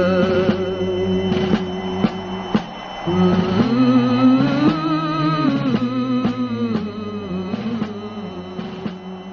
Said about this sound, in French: C'était le chant des partisans sur Radio 2B.